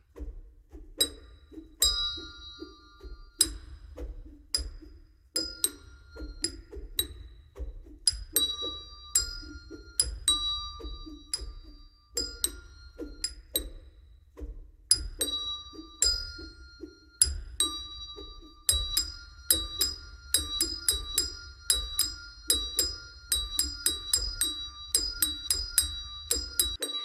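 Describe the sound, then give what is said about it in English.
Handbells played by a group, mirroring a body-percussion pattern, ring in a rhythmic pattern of bright, sustained strikes at several pitches over a steady low thumping beat, growing denser and busier toward the end. No one speaks. “and then we start doing the switch and we have handbells and the handbells are mirroring what we were doing with our body percussion but now there's sound to it”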